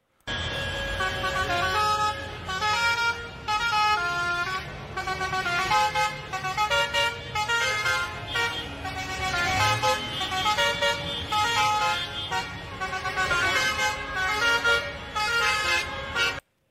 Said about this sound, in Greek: Πάμε να ακούσουμε την κόρνα. Κατέβηκαν κάτω οι αγρότε στην Αθήνα. Ναι. Και περνάει ένα μερακλή. Άκου.